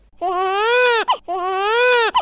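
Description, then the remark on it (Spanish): A French infant cries in two long wails, each climbing steadily in pitch before ending in a brief hiccuping catch. The crying is loud, with no other sounds around it. “Efectivamente, como ya habrá adivinado todo el mundo, el primer bebé llora en francés hacia arriba.”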